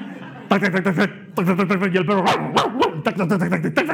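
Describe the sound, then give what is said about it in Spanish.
A person imitates a dog barking with a rapid series of loud, sharp vocal yaps and bow-wows, running almost continuously with only a brief pause. “Es como cuando has, te has ido a la casa del vecino y has empezado a molestar al perro con un palo en la reja.”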